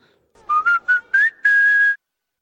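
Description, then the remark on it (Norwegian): A short whistled jingle of five quick notes, the last one held longer, rising slightly in pitch: the McDonald's sound logo, clear, with no talking over it. “Eh, sant, et veldig godt eksempel her er jo McDonald's, eh, som har en veldig kjent og kjær lydlogo.”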